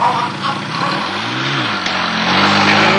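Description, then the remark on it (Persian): A motorcycle engine revs loudly and steadily as Edgar turns it around, its pitch climbing and dipping, with a constant rough roar and a brief clunk partway through, and no voices. “ادگار شروع به دور زدن کرد که ناگهان موتور از شده سبدی که گربه ها و رایفورد کوچولو در اون بودن از روی موتور پرد شد”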